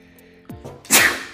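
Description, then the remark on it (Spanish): A single loud sneeze, preceded by a couple of quick catching breaths, bursting out sharply and then trailing off into a breathy hiss. No one speaks. “Salud. Salud.”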